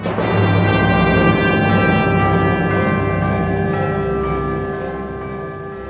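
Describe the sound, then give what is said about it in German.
Bright, ringing glockenspiel tones chime over a full orchestra in the fourth movement of a symphony, with a few struck notes sparkling above sustained strings and a steady, fairly loud ensemble that fades slightly toward the end. “Ein Glockenspiel ertönt.”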